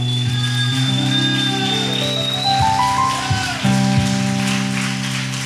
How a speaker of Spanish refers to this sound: Aplauso al Señor.